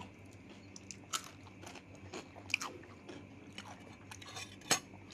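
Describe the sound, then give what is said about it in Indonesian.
Someone eating noodles: moist chewing with a handful of sharp clicks and clinks of utensils scattered irregularly, no talking, just quiet room tone underneath. “Ini sekalian yang dengerin jangan sambil ngiler-ngiler gitu ya. Iya. Bikin di rumah aja bikin mie.”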